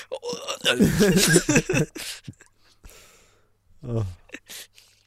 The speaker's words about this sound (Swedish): Som en rap gjorde nyss.